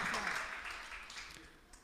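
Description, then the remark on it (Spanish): A steady burst of applause for Christ, many hands clapping in a dense, crackling wash that holds fairly loud throughout and tapers slightly toward the end, with no voices standing out. “Un aplauso a Cristo por eso.”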